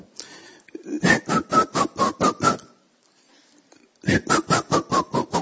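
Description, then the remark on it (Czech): A voice imitates a shepherd's whistle played by a soldier calling sheep with a pastoral tune: two quick bursts of short, punchy notes, about seven each, stepping slightly downward in pitch and separated by a brief pause. Fairly loud. “On si tam stoupnul a vzal si tu svoji eh, pastýskou pištálku a začal”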